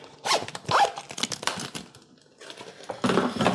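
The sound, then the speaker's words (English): A zipper is tugged open on a see-through plastic pencil case, followed by crinkly rustling and scraping as a paper name slip is drawn out for a giveaway, with a short pause before a final burst of rummaging. “if you want to just pull a name from this see through yeah. pencil case.”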